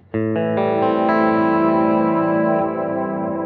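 A guitar run through a pedalboard of effects, playing a series of preset sounds made by Brett Kingman from Australia: notes enter one after another and pile into a loud, sustained, distorted chord with a shimmering echo tail, played alone without any talking.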